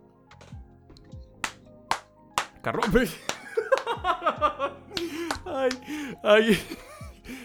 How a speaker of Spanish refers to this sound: Se vuelve a aplaudir en el culo, se, se abofetea la nalga.